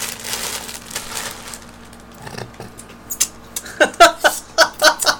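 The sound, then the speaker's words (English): Crunchy chewing noises, soft rustling at first, then a quick rhythmic series of loud crisp bites and crunches toward the end, with no talking. “So we're going to get going, and I'm going to wait until chewing noises are up.”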